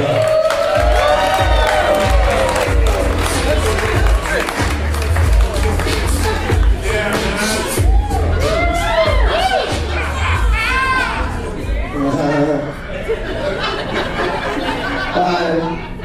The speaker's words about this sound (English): Everybody make some noise for Stoner Rob.